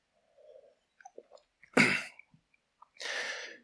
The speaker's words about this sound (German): So, ihr schluckt einmal und ich trinke mal kurz einen Schluck.